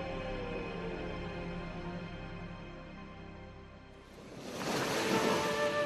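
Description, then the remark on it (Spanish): A soft, sustained musical drone plays for a few seconds, then an ocean wave rushes in and breaks on the shore with a loud, hissing wash. “¿O te soñaste en el mar?”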